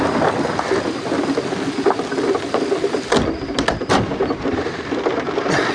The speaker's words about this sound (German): Tu mir den Gefallen und leg den Riegel vor die Tür. Die Tür ist zwar völlig verwittert, aber wenn dich das beruhigt.